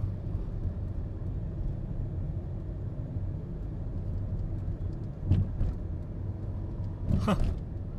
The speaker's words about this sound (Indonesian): sampai busway ada bis lagi mau lewat berhenti tuh di belakang